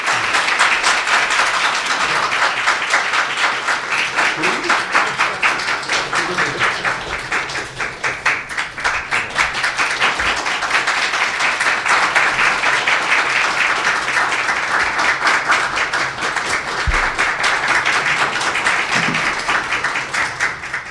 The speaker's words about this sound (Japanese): えー、野田様はご公務のためここでご退席をされます、えー、皆様野田様に大きな拍手でお向こういただければと思いますありがとうございました